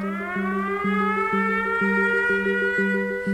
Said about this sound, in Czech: A ty poplachy letecké tu přicházejí